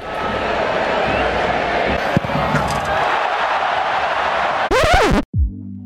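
A large arena crowd roars and cheers continuously for players of a computer game, a dense wall of voices for about five seconds, ending with a brief high electronic whoosh and a low tone.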